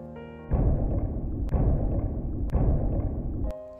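A school drum booms in slow, steady strikes about a second apart, four heavy beats with a deep rumbling resonance that rings on between each hit before fading out.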